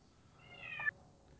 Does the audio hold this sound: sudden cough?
no